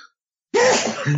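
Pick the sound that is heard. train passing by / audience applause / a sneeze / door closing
a sneeze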